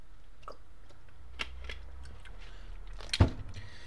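Someone drinking water with no talking: a few soft gulps and wet mouth sounds spread out, then a sharper clunk near the end, like a cup being set down, over a low quiet hum.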